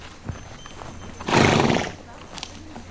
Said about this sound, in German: Die, die Glöckchen, die wir hören, sind nicht äh, die Glöckchen, die die Pferde um den Hals haben, die hier schnauben. Ach so, das Schnauben. Ich dachte, das Schnauben wärst du gewesen.